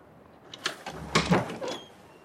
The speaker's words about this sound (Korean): 마침내 전당포 앞으로 돌아온 그는 포장된 길바닥을 지팡이로 두어 번 힘차게 쿵쿵 찍으며 문 앞까지 다가가서 문을 두드렸다. 즉시 문이 열렸다.